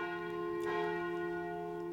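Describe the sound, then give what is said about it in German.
A church bell rings steadily and loudly, its sustained tone humming with layered overtones and a fresh strike swelling in partway through. No one speaks. “Also die Glocke, die läutet jetzt sehr lange.”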